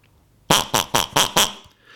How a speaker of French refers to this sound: Ça, c'est mon petit cochon que j'ai dans les mains et qui sert euh, de, de, jingle.